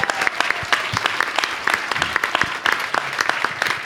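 An audience at an event claps steadily for the person who handles the event's social media, a dense patter of many hands at an even loudness for a few seconds, with a few sharper individual claps standing out and no talking.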